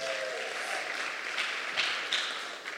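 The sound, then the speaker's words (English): A short burst of applause from a crowd for the start of a new series called Come and See, a steady wash of many hands clapping at once for a few seconds with no voices over it. “It's called Come and See, and that deserves a little round of applause right there before we even.”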